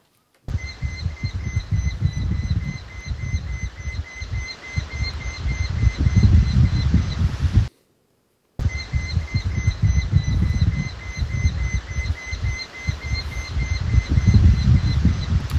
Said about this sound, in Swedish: Det är lärkfalk, och det är en lärkfalk som sitter i sitt revir. I sitt revir? Ja, och, och småpratar med sin partner, eller ja, så är det säkert.